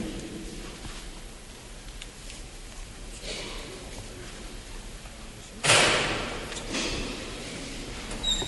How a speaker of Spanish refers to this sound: se vuelve a tocar el martillo. El martillo, hemos visto y hemos escuchado como el señor obispo ha ido a la primera estación de este eh, Via Crucis